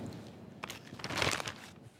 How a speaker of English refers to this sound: I've just cut all the tomatoes in half, and I've just about got them all done. I had about a pint of each red and yellow tomatoes. I'm just going to throw them into a big plastic bag.